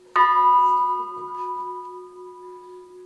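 A single deep church bell strike in Aschersleben, Saxony-Anhalt, Germany, rings out with a sharp onset, then its tone hums on and slowly fades, leaving a long sustained resonance; no voices are heard.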